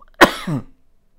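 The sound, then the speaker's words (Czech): A single sharp cough bursts out, followed by a brief rough throat-clearing rumble, then quiet. “sorry za kašel, stříhat to nebudu.”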